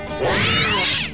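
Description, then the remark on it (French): A lynx big cat snarl sound effect: one loud, drawn-out yowl with a harsh, rising then falling pitch, lasting about a second with no speech. “attends, attends, parce que excuse-moi, là t'as mis un bruitage de lynx.”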